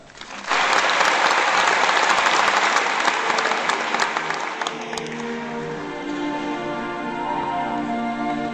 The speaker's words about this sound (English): I'm on stage, looking out into the crowd. There's over a thousand people here. I know that my family, my biggest fans, are out there cheering me on.